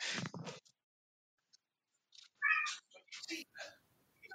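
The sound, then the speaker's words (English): Pet cats meowing: a loud, drawn-out meow at the start, then after a brief pause several more insistent meows and short cries in quick succession, with faint bumping in between. “Uh, I'm just going to pause here because I'm going to have to feed my cats because they're just meowing their heads off and I won't get any peace.”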